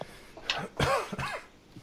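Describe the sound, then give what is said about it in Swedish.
A short coughing fit: three or four rough, rasping coughs in quick succession, fairly loud, with a throaty, congested edge and no talking. “Fan, jag är fortfarande inte helt frisk från den här hostattacken.”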